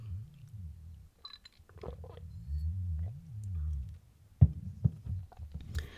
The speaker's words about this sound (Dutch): Even slokje water.